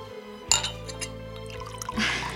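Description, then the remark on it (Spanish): Wine is poured into a glass, a short steady trickle of liquid with a faint glassy clink at the start, over a low background hum. “¿Más vino?”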